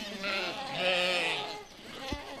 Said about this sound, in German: Die Ziegen und Schafe im Streichelzoo rennen sofort auf